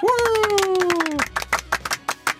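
A short round of applause for a presenter's first round as host: quick, irregular claps, joined at first by a long falling whoop of a cheering voice, then thinning to a few scattered claps.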